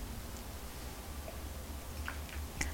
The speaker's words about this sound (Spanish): yo estoy con un café ya servido y recién colado, todavía caliente para darme el primer sorbito de la jornada.